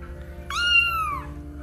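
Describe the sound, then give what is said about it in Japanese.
A single loud, drawn-out cat meow, bright and strained, sliding downward in pitch as it fades, with a low steady hum underneath and no talking. “おおなんかすごい声が出ましたね。おおびっくりした。”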